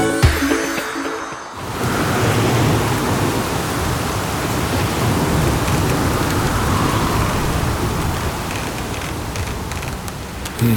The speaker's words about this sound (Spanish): Las maderas de la guarida gruñen y tiemblan empujadas por la fuerza del aire. Las gotas de agua caen como piedras en el techo y se resbalan convirtiéndose en cascadas.